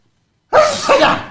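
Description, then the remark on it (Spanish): A loud sneeze bursts in after a moment of silence, a sharp two-part expulsion of breath with no talking around it. “Salud.”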